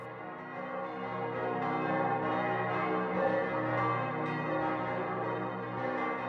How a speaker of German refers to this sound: Thomas Manns Roman Der Erwählte beginnt mit den Zeilen Glockenschall, Glockenschwall, supra urbem, über der ganzen Stadt, in ihren von Klang überfüllten Lüften. Glocken, Glocken, sie schwingen und schaukeln, wogen und wiegen,